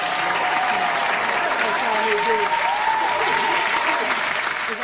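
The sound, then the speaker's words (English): A steady burst of dense applause, many hands clapping continuously at an even loudness for about five seconds, with faint voices murmuring underneath. “You know, I need to clap for that, man.”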